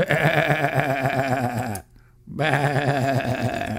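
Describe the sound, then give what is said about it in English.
A person bleats like a sheep, two long, loud, quavering cries with a short pause between them and no other talking. “I'm a sheep.”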